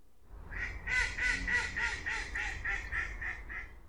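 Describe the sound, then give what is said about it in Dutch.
A run of about nine nasal mallard quacks in quick, rhythmic succession, loud, with a low background rumble and no talking. “De wilde eenden die in Nederland broeden, dat zijn voornamelijk standvogels.”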